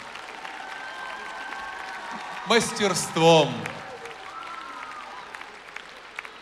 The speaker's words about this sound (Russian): Вы нас, если не слышите, то чувствуете. И чувствуете, как аплодирует этот большой зал. Он похож по форме на Землю.